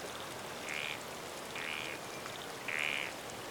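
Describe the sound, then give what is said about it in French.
Three short, nasal croaking calls from frogs out of their ponds in a cedar and fern forest sound at uneven intervals over a steady hiss of falling rain, with no voices present. “Les grenouilles sortent alors de leurs étangs et coassent toute la journée.”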